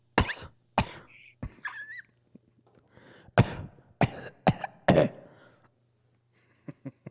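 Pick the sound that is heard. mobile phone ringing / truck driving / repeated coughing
repeated coughing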